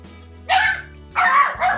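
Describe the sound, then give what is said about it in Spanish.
A female dog barks three times in quick succession, loud, the barks sharp and slightly yappy, with no one speaking over them. “acá, acá mi perra está feliz de la vida.”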